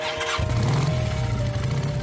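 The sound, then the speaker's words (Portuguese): A man's motorcycle engine sputters to life late on a winter night as he sets off for a ride, then settles into a loud, steady, low rumble for the rest of the short clip, with no voices. “Certa noite, um homem decidiu pegar a sua moto para dar uma volta.”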